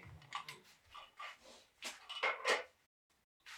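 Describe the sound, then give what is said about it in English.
An office chair squeaks and creaks in a run of short, irregular bursts, fairly loud, with a brief silence before one last faint creak. No one speaks. “Just, but it squeaks like a shit ton.”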